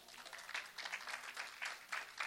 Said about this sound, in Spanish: Aleluya. Gloria a Dios. Dele otro aplauso a Jesús.